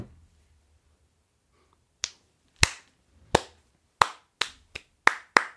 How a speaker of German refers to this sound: Ich musste klatschen.